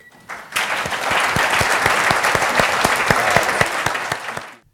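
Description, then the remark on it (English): An audience bursts into sustained applause to thank a panel after a session, steady dense clapping that holds for several seconds before quickly fading out. No one speaks. “So I just want you to join me in thanking our panel.”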